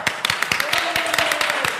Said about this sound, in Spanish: Un aplauso.